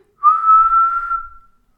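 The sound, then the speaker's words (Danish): A person whistles one steady, sustained note for just over a second, fairly loud, with a slight upward slide at the start and no talking. “Jeg kan, kan kun fløjte i én tone.”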